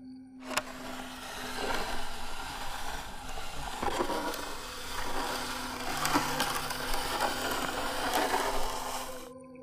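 At night, fingernails scratch steadily across a wooden wall in another room for several seconds, a dry, rasping texture broken by sharper irregular strokes, over a faint low hum. No one speaks.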